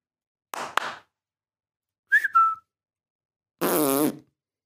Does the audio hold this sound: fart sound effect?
yes